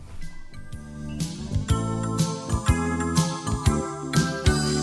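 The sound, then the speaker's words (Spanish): A gentle musical intro with tinkling, chime-like tones over a steady bass line and soft rhythmic beats, playing alone with no voices, like the start of a lullaby-style goodnight song. “Por eso lo vamos a escuchar ahora, porque para nosotros terminó el fin de semana.”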